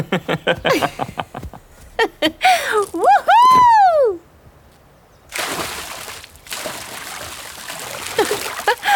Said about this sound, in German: Für einen Moment halten wir inne, schauen uns kurz herausfordernd an und rennen dann Hand in Hand bis zu einem kleinen Felsvorsprung, von dem wir laut lachend ins kühle Nass springen.